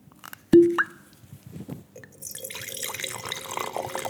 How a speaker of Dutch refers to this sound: Patrick schenkt voor ons twee glazen wit uit. Het is dezelfde wijn, een blend van negen verschillende soorten druiven maar van een ander jaar. Het ene is uit 21, het koele jaar. Het andere uit 22, het warme jaar.